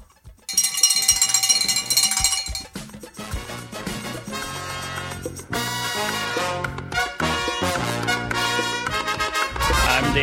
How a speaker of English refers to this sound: Okay, let's ring the bell.